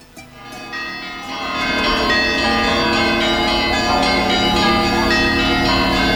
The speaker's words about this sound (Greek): Ω, χτυπούν οι καμπάνες στον Άγιο Δημήτρη. Έλα, Χτυπούν οι καμπάνες.